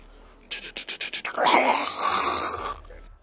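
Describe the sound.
A person does a zombie growl: a quick burst of about seven choppy, breathy grunts, then a long, raspy, snarling groan, loud, with no talking around it.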